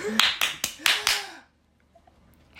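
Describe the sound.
Around five quick, uneven hand claps, sharp and fairly loud, with a faint voice underneath, followed by near silence with a few soft ticks.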